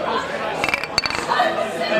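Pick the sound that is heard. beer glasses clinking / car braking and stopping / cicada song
beer glasses clinking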